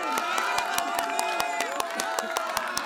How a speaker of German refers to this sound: Das fröhliche Gelächter inner und außerhalb des Baumgartens verwandelte sich in ein jubelndes Beifallrufen.